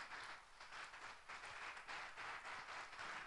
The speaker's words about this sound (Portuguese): Dê um aplauso bem forte ao Messias.